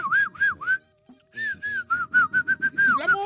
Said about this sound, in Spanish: Ningún güey sabe chiflar. Ah, ¿cómo no? ¿Cómo no?